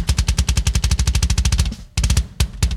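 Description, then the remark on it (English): A recorded metal drum kit, the Mark Lewis stuff, blasts a rapid, machine-gun-like run of kick and cymbal hits, loud, then breaks briefly before a few more punchy strikes. No one speaks. “See, yeah, like this is this is the good sounding kit right here, the Mark Lewis stuff.”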